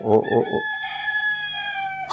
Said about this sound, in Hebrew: כן, לא טעיתם, זה אמיתי. שמעתם תרנגול, התרנגול שלי, שמסתובב עכשיו בזמן הרעיון בחצר. הוא עוד ישוב.